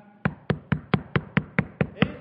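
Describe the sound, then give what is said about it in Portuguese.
Knocking on a wooden door, about ten steady, evenly spaced raps in quick succession, moderately loud, with no voices. “E Jesus está nessa igreja, a porta dessa igreja chamada Laodiceia, e ele não vai chutar a porta para poder entrar. Ele bate.”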